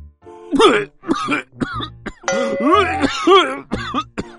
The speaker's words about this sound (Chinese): 拉布拉多警长还没进病房，里面就传来了一阵阵咳嗽声，还传来一股怪味。